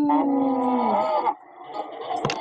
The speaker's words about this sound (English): What does a cow say? Moo, moo, moo,